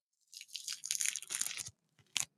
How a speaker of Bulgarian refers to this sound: Аз сега си отварям портокал, защото е коледа. Как така си отваряш портокал? Какво значи Еми, това? беля си портокал. Това е звука на портокал, който след като е обелен, а не избелен, а обелен, прави така.